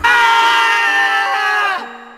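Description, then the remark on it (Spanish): A man bending down under a card table in a club lets out a single loud, high-pitched scream of terror, held steadily for nearly two seconds before breaking off into a lower, fading tail. No one speaks. “Para ver si podía realizar alguna artimaña a su favor, el socio del club hizo un extraño tropiezo dejando caer al suelo una de sus cartas, y al agacharse debajo de la mesa, solo emitió un grito aterrador.”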